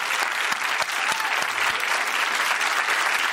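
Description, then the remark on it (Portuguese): A crowd applauds steadily, a dense wash of many hands clapping at once that stays loud and even from start to finish, with no voices standing out. “Agora, por favor, pode aplaudir.”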